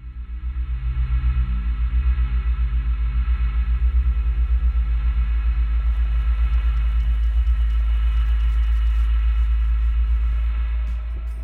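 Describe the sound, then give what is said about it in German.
A deep, sustained drone made only with software synthesizers using Native Instruments presets hums steadily with a pulsing low-end throb, while faint glittery crackles and static flicker above it in the second half. No one speaks. “Ein Drone ist ein langer, tiefer, durchgehender und spannungserzeugender Soundeffekt.”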